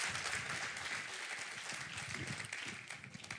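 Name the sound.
audience applauding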